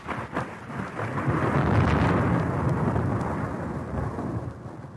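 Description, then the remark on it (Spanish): A deep, rolling thunder rumble builds and swells over several seconds, loud and heavy, with a faint hiss of rain beneath it and no voices. “En ese momento un trueno cimbró la tierra espantando a los caballos.”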